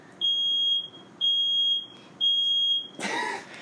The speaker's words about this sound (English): has set off the fire alarm